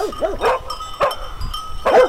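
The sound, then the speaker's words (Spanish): Dogs bark in short, sharp bursts, a quick cluster of yappy barks, then a lone bark and another flurry, loud, with a faint, low background hum. “¡Que de perros trata la cosa!”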